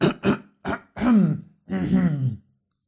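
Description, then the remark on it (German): A theatrical, exaggerated throat clearing: a few short guttural bursts followed by two longer, drawn-out rumbling clears, with no speech. “Noch kurz äh, ein theatralisch räuspern.”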